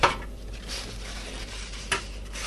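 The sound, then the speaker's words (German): A metal baking tray knocks and clatters, one sharp clank at the start and another near the end, with soft handling noises in between as kitchen roll paper is laid on the tray to drain oil from fried food; no voices. “Da tue ich Papier drauf.”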